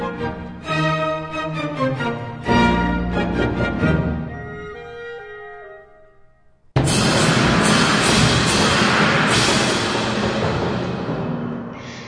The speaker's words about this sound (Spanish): Pongamos atención al final de la pieza donde se escuchan muchos efectos de estas explosiones.